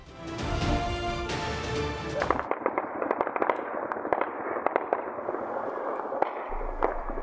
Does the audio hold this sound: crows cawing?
no